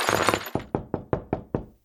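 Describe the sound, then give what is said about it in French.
Pinocchio, a wooden puppet, staggers and falls full length onto a parquet floor: a loud, dense clatter, then five sharp wooden knocks in a quick, steady rhythm, each ringing out briefly before the next. “Mais tout ce qu'il réussit à faire, ce fut de tituber deux ou trois fois, et il tomba sur le parquet de tout son long.”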